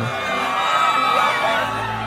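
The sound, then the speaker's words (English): A woman lets out a loud, sustained high-pitched scream that holds steady for about two seconds, alone with no talking around it. “Access your feminine magic, the divine essence of yonic appeal, the female sex vibe energy, and channel it into a scream.”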